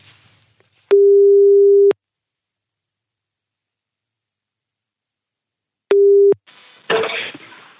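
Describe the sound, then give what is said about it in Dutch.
A telephone ringback tone sounds twice while a call is placed to Erik Kriek, a steady electronic hum lasting about a second, then a shorter burst after a long silence, followed by a rustling pickup noise. “Zullen we eens even Erik Kriek bellen?”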